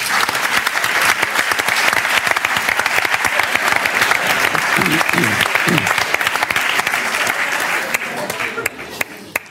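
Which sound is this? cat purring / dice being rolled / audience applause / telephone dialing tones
audience applause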